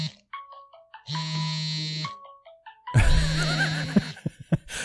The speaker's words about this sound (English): Is your phone ringing?